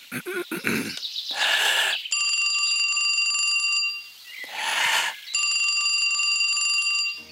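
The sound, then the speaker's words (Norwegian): A man's voice imitates an old telephone ringing, two long, bright, trilling rings separated by a short pause, each preceded by a breathy rush of air, fairly loud, on a very old recording. “og ingen kunne vel etterligne en gammel telefon bedre enn ham.”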